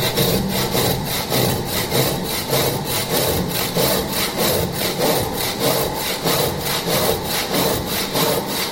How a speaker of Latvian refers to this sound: cik jums bieži pašam iznāk tā ar rokas zāģīt, vēl pazāģēt, vai nu, vairāk tomēr tie modernie instrumenti?